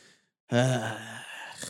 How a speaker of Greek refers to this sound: Χασμουριέται κιόλα, μαλάκα.